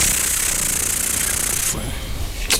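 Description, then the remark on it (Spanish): A helicopter, the Águila 1, roars overhead above the Municipal Palace of Encarnación de Díaz with a dense, steady rotor whir for about two seconds, then the noise drops away, leaving a quieter rumble and one brief sharp burst near the end. “Era el helicóptero, el Águila 1, sobrevolando el Palacio Municipal de Encarnación de Díaz.”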